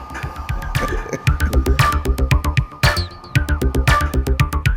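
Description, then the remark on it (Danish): A steady run of sharp, regular clicks from the misaligned drive wheel of a rotating house, fairly loud, over a low rhythmic mechanical throbbing and hum, with no voices. The driving wheel is not angled correctly to the radius. “det, du kan høre, der klikker, det er også, fordi Ole ikke har fået det lavet det helt færdigt”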